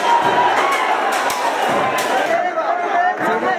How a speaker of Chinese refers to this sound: 工厂已经被示威群众包围，场外群众激愤叫嚣，场内也完全失控。